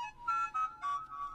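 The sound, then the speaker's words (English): A mobile phone rings with a short electronic melody of four bright, sustained tones in quick succession, heard alone at moderate volume for just over a second. “That was my phone.”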